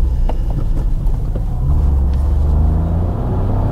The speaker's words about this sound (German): beschleunige, dann höre ich den Dreizylinder. Aber es passt einfach auch in die Fahrzeugklasse.